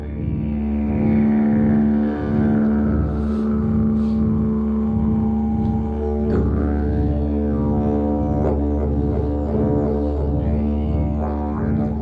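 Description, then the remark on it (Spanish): A didgeridoo played by an Aboriginal man plays one continuous low, buzzing drone in a room for the whole stretch, its tone swelling and shifting in timbre with rhythmic pulses, steady and loud with no voices. “El sonido del instrumento fue llenando la sala y pude percibir cómo la sal embudo comenzaba a palpitar de manera casi imperceptible, como si el aire necesario para sacarle sonidos al digiridú se produjera de la compresión rítmica de las paredes”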